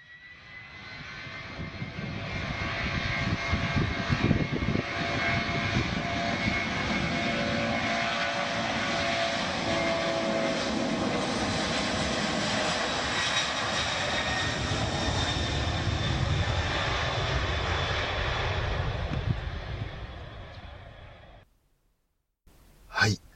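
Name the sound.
aircraft engine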